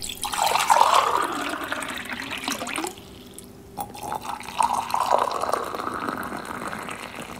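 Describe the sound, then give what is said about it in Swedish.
Water is poured twice in a row, a steady splashing stream each time with a short quiet gap between; the first pour is cold water, the second hot, with no voices. “Varför känner vi igen skillnader på hur varmt eller kallt vatten låter?”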